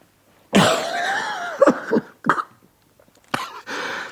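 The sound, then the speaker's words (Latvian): A man coughs and croaks hoarsely in a rough series of bursts, with a raspy drawn-out rattle, then a pause before another harsh throaty cough. “Ārā projām viņš tiem rādīja ar zīmēm, sākdams klepot un gārkt.”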